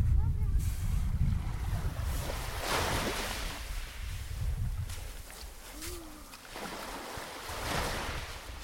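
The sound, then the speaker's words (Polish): Sea waves wash onto a beach of round, wave-smoothed pebbles in repeated hissing surges every couple of seconds, over a steady low rumble of wind and surf. “Jaka fajna tu jest ta woda.”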